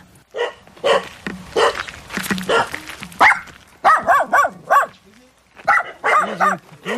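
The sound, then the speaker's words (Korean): Dogs at an elderly woman's house in Gwaneum-ri village, Korea, bark repeatedly in loud, quick clusters of two or three sharp, mid-pitched barks, with short pauses between bursts and no one talking. The dogs bear burns from a wildfire, during which they were tied on leashes. “그런데 할머니 집 개들의 모습이 심상치 않았습니다.”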